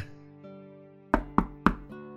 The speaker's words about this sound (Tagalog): Bakit ang aga mong kumatok?